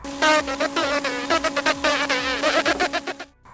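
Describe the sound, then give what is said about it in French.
A housefly buzzes with a steady, droning whine that wavers in pitch and loudness as it darts around, stopping abruptly at the end. “L'homme voit la mouche posée sur le rebord de la cuisinière.”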